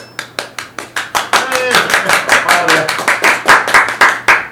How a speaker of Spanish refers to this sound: Y por eso para ustedes trajimos hoy al gran Richard Linares. Un aplauso, por favor.